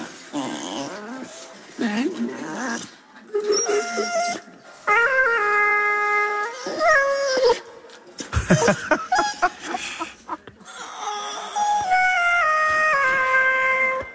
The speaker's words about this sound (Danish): Så skal du høre Maggie, når hun synger, altså hunden synger igennem autotune.